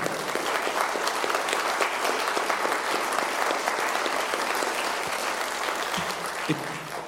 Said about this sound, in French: Merci beaucoup pour euh, notre conférencier, je crois qu'on peut l'applaudir.